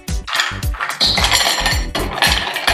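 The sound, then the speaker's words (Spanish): Ice cubes clink and clatter into a glass in a quick, irregular series of bright knocks, fairly loud, with no talking over them, as plenty of ice is added to a drink with lemon slices and ginger. “Hielo,”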